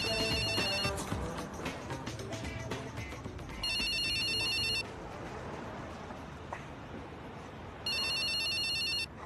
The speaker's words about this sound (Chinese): 此时电话响起，他是先扔枪再接电话，还是先接电话再扔枪呢？